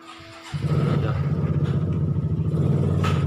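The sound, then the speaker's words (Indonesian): A motorcycle engine starts rumbling outside after a brief quiet moment, its loud, steady low drone continuing to the end with a slight rattling texture as it passes by. “ya motor ya motor”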